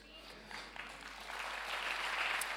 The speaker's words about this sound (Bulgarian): О, ако ръкопляскаш, ръкопляскай, като че вярваш Божието Слово.